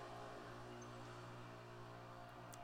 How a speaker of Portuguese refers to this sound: Opa, carro. Que filho de uma puta! Caralho, eu ouvi daqui.